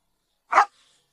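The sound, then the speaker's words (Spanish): A single sharp, loud dog bark standing alone against silence with a brief fading tail after it. “Volvió al lugar a hablar con la policía y lo identificó el perro.”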